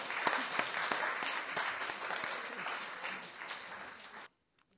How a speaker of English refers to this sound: Give her a big round of applause, ladies and gentlemen.